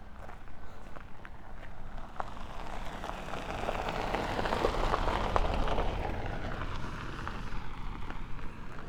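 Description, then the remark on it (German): A car drives past in a village while the speaker walks, its broad hiss swelling to a peak midway and fading out, as if on a wet road, with steady footsteps and drizzle-like noise underneath. “Deswegen hörst du jetzt auch gleich ein Auto vorbeifahren.”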